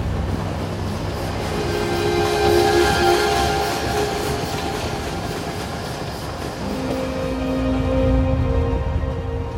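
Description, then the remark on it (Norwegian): A train rolls slowly into the large Atocha railway station in central Madrid, Spain, on a cool autumn evening, with a steady low rumble and broad noise, sustained whining tones rising and shifting in pitch as it moves; no voices. “En kjølig høstkveld ruller et tog sakte inn på den store jernbanestasjonen Atocha i sentrum av Madrid.”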